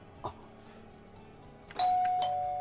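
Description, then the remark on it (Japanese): A faint click, then a loud two-tone doorbell chime, a bright ding followed by a dong, both notes ringing out and sustaining to the end, played as a guess at a bus's stop-request chime. “そうするとチャイムですかねチャイムだと思います”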